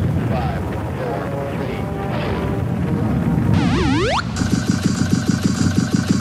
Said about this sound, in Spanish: 209 a control, preparados para despegar. Todos a bordo. 12, 11, 10, 9, 8, ignition sequence has started. 6,